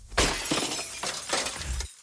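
A windshield shatters in a sudden loud crash, followed by a rush of crackling, splintering glass that comes in a few bright surges before cutting off abruptly after about two seconds.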